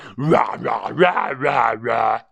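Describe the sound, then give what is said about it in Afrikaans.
A person imitates a wild lion's loud roar with their voice, a series of strained, drawn-out bellows rising and falling in pitch, forceful for about two seconds. “Julle, hy brul so hard, die berge begin bewe en daar's 'n klip stort en klippe rol af.”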